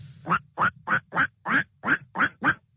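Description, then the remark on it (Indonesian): A voice imitates a duck with eight quick, nasal quacks in a steady rhythm, fairly loud, with no other talking. “Kalau suara bebek begini.”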